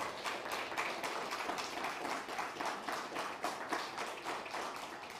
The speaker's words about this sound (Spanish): Fuerte, aplauso.